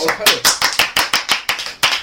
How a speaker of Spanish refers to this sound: Y un aplauso para todos, por favor.